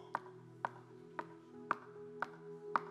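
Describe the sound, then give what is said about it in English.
Six crisp knocks land at an even, unhurried pace, about two per second, like someone rapping on a door, heard over a steady low droning hum. “I stand at the door and I'm just knocking.”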